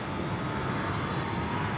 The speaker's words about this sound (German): Der Lärm eines Flugzeugs ist zu hören. Wir schauen ihm bei der Landung zu. Ich meine den Boden ruckeln zu spüren.